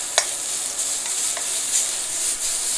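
Steady hiss of junk food sizzling in a hot frying pan, with a few light scrapes and clicks as it is stirred; no voices.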